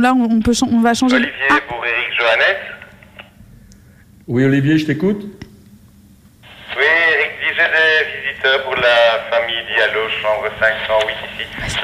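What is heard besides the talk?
walkie-talkie radio transmission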